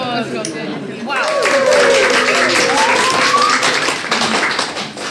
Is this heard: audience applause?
yes